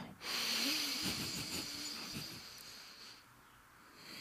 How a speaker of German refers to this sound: oh, kleine Atemübungen hier, hör mal. Ach, schön. Jetzt schön, muss man ja immer schön, ganz tief schön. atmen